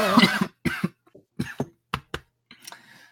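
A coughing fit: a heavy first cough followed by a string of sharp, rapid coughs in uneven bursts, tapering off into a few weaker, raspy hacks.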